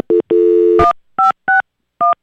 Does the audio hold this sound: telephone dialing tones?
yes